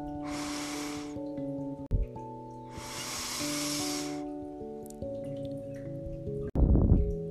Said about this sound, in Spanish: Pues bien, vamos a inhalar y exhalar tres veces. Empezamos.